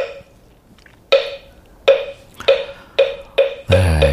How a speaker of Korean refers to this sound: 목탁 소리죠. 목탁 소리. 오늘 보물 소리입니다. 어떤 노래 숨어 있는지 이 목탁 소리 찾아주시면 됩니다.